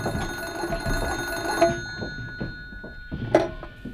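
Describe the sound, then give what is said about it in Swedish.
An old-fashioned telephone bell rings at moderate volume, with two sharper strikes that leave sustained metallic tones hanging in the air. No one speaks. “Fältväben ringde ett samtal till gränskompaniets chef och efter en stund meddelade han att ett förhör väntade oss i Ivalo.”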